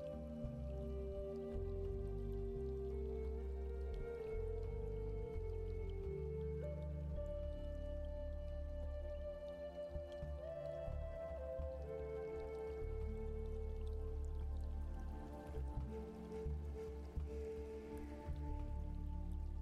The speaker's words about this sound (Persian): ابرها رو میبینی که به آرامی دارن عبور میکنن. و کم کم چند قطره بارون پوستت رو به آرومی خیس میکنه و روی صورت و دستت میشین. قطره های بارون خنک هستن و خیلی حس تازگی بهت میدن.